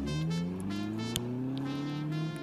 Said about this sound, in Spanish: Una fuerte pasión los dominó, tan fuerte como el coraje que sintió Bachelot, quien encendió su auto arrancando velozmente para dejar de ver la apasionante escena.